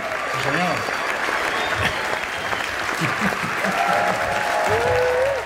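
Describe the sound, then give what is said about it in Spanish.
Sustained applause from a live audience, a dense, steady wash of clapping that stays loud throughout, with a few voices faintly cheering and calling out underneath. “Qué bonito es el aplauso, qué bonito es el aplauso.”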